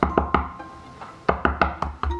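Someone from next door raps on a door: three quick, sharp knocks, a pause of about a second, then a second, slightly uneven run of about five loud knocks, with no voices.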